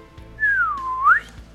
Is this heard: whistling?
yes